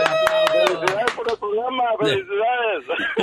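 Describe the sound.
A short burst of applause, half a dozen sharp claps in quick, uneven succession over a voice, fading after about a second as talking carries on alone.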